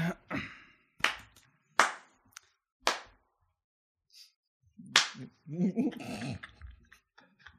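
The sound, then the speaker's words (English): Several loud, sharp hand claps, made to sync cameras so the recordings line up, ring out one at a time, roughly a second apart, with a pause before the last one; afterward a voice and some softer, whiny sounds follow. “It could literally be one. Yeah. We'll, we do three to make sure they all line up.”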